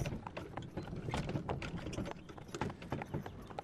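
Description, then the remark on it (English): Horse hooves clip-clop in a steady, uneven rhythm as a carriage rolls along, with a low rumbling of wheels underneath; the sounds are fairly quiet, with no talking. “It's still kind of a, almost an awkward silence with nothing but the sounds of the horses and the carriage behind you”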